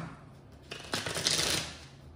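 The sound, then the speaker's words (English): An already shuffled deck of tarot cards is shuffled one more round, a quick riffle of papery flutter and snapping that swells for about a second before settling into soft rustling. “I have already also shuffled the set, but I will do that just one more round.”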